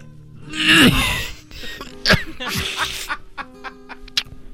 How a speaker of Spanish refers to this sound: Tengo mucha tos.